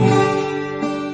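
A six-string steel-string acoustic guitar is strummed once, a bright, full chord ringing out and slowly decaying, with a second lighter strum near the end. Clear, no voices.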